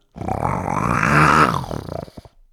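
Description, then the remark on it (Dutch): A human voice imitates a lion's roar: one long, rough, growling bellow that swells, peaks, then breaks into a few short grunting bursts before stopping. Fairly loud, no other talk. “ik heb ook nog geprobeerd om een leeuwimitatie ja. na te doen.”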